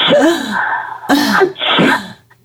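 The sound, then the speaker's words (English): A voice acts out a dramatic sneeze: a drawn-out gasping inhale building up, then sharp, loud bursts of breath, with no words spoken. “Uh, a man is sitting next to a woman, and she's on a plane, and she keeps sneezing, and in these big sneezes, and he's alarmed”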